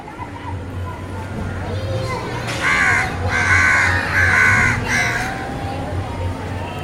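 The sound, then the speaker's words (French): Crows caw repeatedly in harsh bursts over a busy outdoor street ambience in the Dharavi slum of Mumbai, India, with a steady low hum of traffic and voices in the background. “Nous sommes en direct de Mumbai dans le bidonville de Dharavi.”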